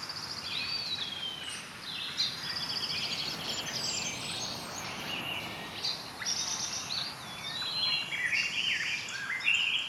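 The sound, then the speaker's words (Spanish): A dense chorus of tropical jungle birds chirps and whistles continuously, many calls overlapping, over a steady low wash of sea waves; no one speaks. “Y esto hace que estés metido con todos estos sonidos que estás escuchando y con este sonido del mar”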